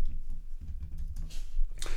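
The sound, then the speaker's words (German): Rapid clicking of keys on a computer keyboard as a name is typed into a field, a quick uneven run of fairly loud taps with no voices. “Du gibst also oben irgendwie einen Chemie-Chemieversuch, XY ein.”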